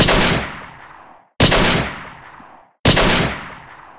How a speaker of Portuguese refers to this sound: Esse grupo chegou a ser cercado pelo aparato policial, ficando encurralado na esquina entre as ruas México e Santa Luzia. Na contenção dos manifestantes, os policiais gritaram que atirariam para matar em quem tentasse resistir, e atiraram mesmo.